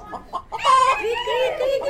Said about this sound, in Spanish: Y a medida que fueron adentrándose, se encontraron con patos, gallinas,